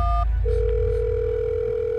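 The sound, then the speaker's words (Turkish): A brief two-note electronic tone, then a steady, unbroken telephone dial tone humming clearly and evenly for the rest of the moment as someone calls 911 to report a broken garage door and a possible break-in, with no voices. “Nathan hemen 911'i aradı ve garaj kapısının kırık olduğunu, eve birinin girmiş olabileceğini söyledi.”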